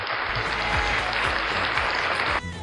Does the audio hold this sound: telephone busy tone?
no